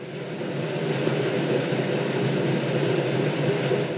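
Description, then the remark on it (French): The buried Molson creek flowing underground, recorded in spring through a manhole: steady, rushing water heard as a dense, hollow roar, continuous and unchanging in loudness with no voices. “Bon, pour vous faire économiser un peu de temps, je suis allé moi-même l'enregistrer au printemps, mais c'était un peu plus difficile que prévu d'enregistrer à travers une bouche d'égout.”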